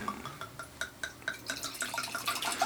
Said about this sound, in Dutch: Waarom schenk je niet in? Vraag ik mij dan af. Ja, ik denk, laat ik hem eens inschenken. Ik, ik hou het glas even voor.